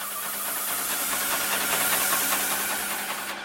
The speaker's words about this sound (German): Kurz ausrichten, dann legt er los. Der Roboterarm fährt die Wand hoch und runter, sprüht die weiße Farbe gleichmäßig auf die Parkhauswand, rollt dann ein paar Zentimeter weiter.